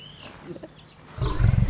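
After a second of near silence, a lion lets out a loud, deep, rumbling roar during a medical training session with lions. It starts abruptly and is still going when the sound cuts off.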